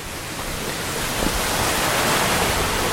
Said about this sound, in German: So, man hört hier jetzt das Geplätscher des Wassers. Ähm, wir sind gerade noch im Wald, mitten im Schwarzwald und laufen an einem Bach entlang. Ähm, viele große Steine liegen im Weg und ähm, das Wasser ist sehr, sehr klar, also frisches Quellwasser.